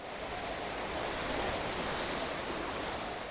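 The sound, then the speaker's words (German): A steady wash of ocean surf, broad and hissing, with waves rolling in continuously and a faint swell building slightly midway, no voices present. “Als sogenannter Swell reisen die Wellen oft über Tage und über viele hundert Kilometer weit.”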